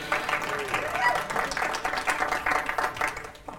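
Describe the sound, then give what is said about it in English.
An audience claps steadily for a few seconds to welcome someone back, a dense, even patter of many hands with voices mixed in, then the applause thins out and stops at the end. “Was, there was clapping.”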